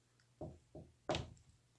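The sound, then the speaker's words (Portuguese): Three knocks on a wooden door, evenly spaced. The third lands noticeably harder and brighter than the first two, with quiet background and no voices. “Bateu à porta o mais delicadamente possível com suas enormes patas.”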